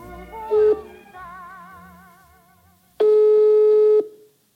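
A telephone ringing tone heard over the line: a short electronic burst, then a steady one-second tone, with faint warbling sounds in between and no talking.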